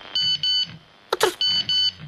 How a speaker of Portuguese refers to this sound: querido, o meu telefone está tá a fazer pipi. Pipi. Pipi. Olha, parece que tem uma coisa escrita no visor.